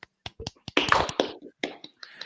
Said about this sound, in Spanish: Un aplauso para Bascuñán.